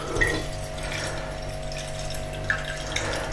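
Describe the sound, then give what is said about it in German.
Tea is poured from a pot in a steady stream into a thermos cup, an even gurgling rush with a faint mechanical hum underneath and no talking. “So, ich gieße jetzt Tee in meinen Thermobecher.”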